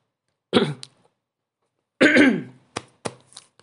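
Two close, fairly loud coughs, a short one followed a moment later by a longer, raspier one, then a few brief sharp clicks. No one speaks.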